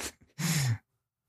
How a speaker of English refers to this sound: She's yawning.